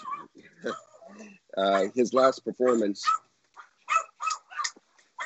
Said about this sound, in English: I'm sorry about the dogs. Four Pomeranians of the apocalypse here, are getting quite excited.